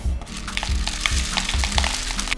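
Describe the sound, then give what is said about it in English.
A steady, hissing rattle of dry rice grains streaming into a cardboard tube with one end covered by paper and tape, while making a homemade rain stick; continuous for a couple of seconds, with dense tiny ticks and no voices. “All right, now that I've got this on, I'm gonna take my rice and pour it in.”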